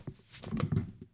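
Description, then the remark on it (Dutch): A lightsaber sound effect from the scene where Dooku is beheaded: a low electric hum with a few quick buzzing swooshes and a sharp strike, over about a second, fairly loud, with no voices. “Het is het geluid als uh, Dooku wordt onthoofd.”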